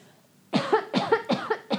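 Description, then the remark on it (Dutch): A person coughs several times in a quick, rhythmic burst of four or five harsh coughs after a moment of quiet, with no talking. “Wacht, ik moet hoesten, sorry.”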